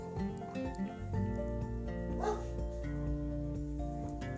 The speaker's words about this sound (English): I'm sorry about those dogs barking.